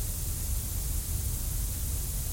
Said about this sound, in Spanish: Es el ruido blanco. y no se escucha, pues, weón. ¿No escucháis él? No, no, yo no lo escucho.